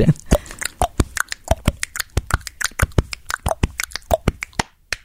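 Rapid, rhythmic hand slaps on the body, sharp smacks in a steady pattern with occasional accents, played alone with no talking, as a short body-percussion demonstration.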